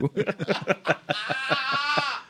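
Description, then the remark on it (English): A person does a mock cow moo: a quick run of choppy, laugh-like vocal bursts, then a drawn-out, wavering low moo held for about a second, fairly loud. “I now identify as a cow. Moo moo bitch.”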